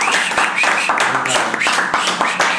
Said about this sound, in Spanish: De verdad, un aplauso, un aplauso.